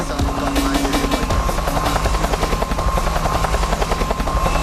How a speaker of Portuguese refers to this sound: vem cá que o helicóptero tá ligado. O helicóptero tá ligado! O helicóptero tá ligado!